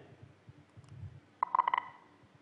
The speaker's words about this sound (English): as the runners come to the finish, you'll hear a beep as each man crosses the line. That's the entire finish of the race. You can open your eyes now.